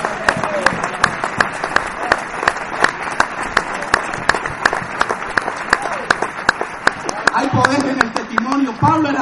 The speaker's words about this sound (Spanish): Si va a aplaudir al Señor, apláudele fuerte.